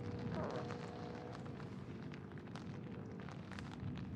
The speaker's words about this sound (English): That's thunder. Yeah, that's thunder.